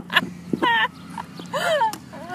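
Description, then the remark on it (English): A person drinking wine makes a few high, warbling dolphin-like squeaks with the voice, several short rising and falling squeals in quick succession, fairly loud with no talking. “drinking water and making dolphin it's like sounds.”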